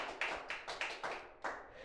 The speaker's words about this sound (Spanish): Vamos, dale un fuerte aplauso al Rey de Reyes.